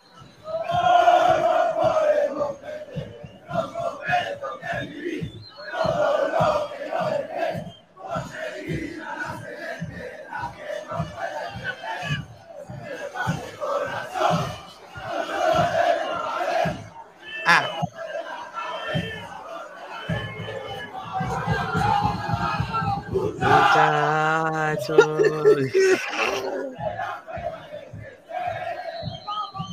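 A loud crowd of football fans chants a song in unison, voices rising and falling over steady, regular beats like a drum, with a brief sustained tone near the end.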